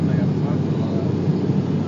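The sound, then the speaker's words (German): A steady, loud, low drone of airplane engines heard from inside the cabin during flight, a constant rumbling hum with no breaks or changes in level. “Hier im Flugzeug bietet sich das nicht an.”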